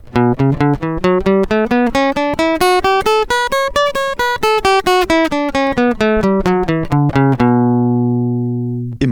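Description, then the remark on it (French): A B minor scale of only seven notes picked on guitar strings, extended onto the highest strings, a steady run of single notes climbing higher then descending back to the starting point, ending on a low note left ringing. No voices. “je vais l'étendre en continuant de la jouer vers les cordes les plus aiguës”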